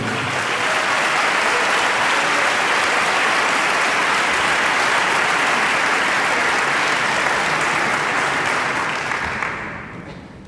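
Loud, sustained applause from a large audience at a symphonic concert, given in tribute to Astor Piazzolla, a dense wash of clapping that holds steady for about nine seconds before tapering off at the end.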